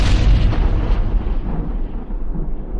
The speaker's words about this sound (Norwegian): An event called The Big Bang.